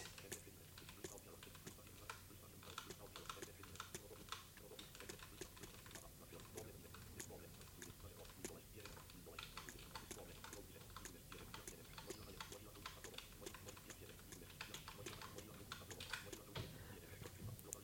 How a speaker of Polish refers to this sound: Nie wiem czasem, czy głośniej słychać było odgłosy wciskanych przeze mnie klawiszy e, na klawiaturze niż e, właśnie ten wyświetlający się na linijce Braille Edge tekst.